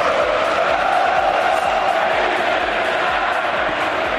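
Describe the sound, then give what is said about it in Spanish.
A large stadium crowd at Balaídos shouts and chants in unison against coach Rafa Benítez, a loud, sustained roar of many voices with rhythmic pulses of angry yelling throughout. “Bueno, de directiva de misión en el Pijuán a gritos contra Rafa Benítez de Balaídos.”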